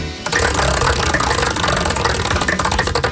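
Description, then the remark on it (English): A prize wheel, spun for a contestant to decide their task, spins with a loud, steady rattle of rapid clicks, the ticking gradually slowing and becoming more distinct toward the end. No voices are heard. “All right, we'll go ahead and grab that wheel and give it a spin.”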